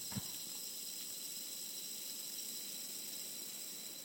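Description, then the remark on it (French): Fine glass powder streams steadily through an hourglass, a soft, continuous hiss with a bright, airy edge. It stays even throughout, quiet, with no voices. “Heureusement que j'ai dit que c'était le son du sable, du sablier, parce que de la poudre de verre, parce que c'est vrai que c'est un son un peu avant-garde, on va dire.”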